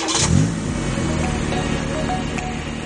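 A car engine starts with a brief rising rev, then settles into a steady, continuous rumble as the vehicle pulls away, loud with no one speaking.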